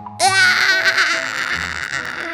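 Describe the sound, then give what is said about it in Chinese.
A voice imitates the big bad wolf's scream of pain after he crashes into the little pig's house: one loud, strained, wailing cry that rises sharply, then wavers and trails off over about two seconds. “这个惨叫是谁的声音呢？”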